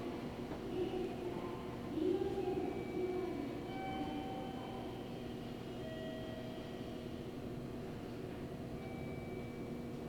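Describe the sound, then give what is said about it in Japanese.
A local passenger train that stops at every station rolls steadily along the rails, a continuous low rumble layered with thin whining motor tones that rise and shift. It is even throughout, with no talking. “各駅に停まります。普通列車の突撃です。”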